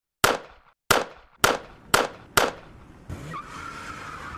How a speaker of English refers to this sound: had just reached up to close the garage door when he was gunned down in a fusillade of bullets.